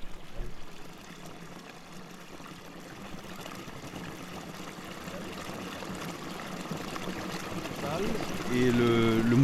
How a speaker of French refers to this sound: C'est les pales qui font tourner les lettres. Avec ce son, du coup, de, de la, du métal, il y a un son particulier qui, euh, de, de, de l'eau qui tombe sur le métal et qui, euh, qui donne une résonance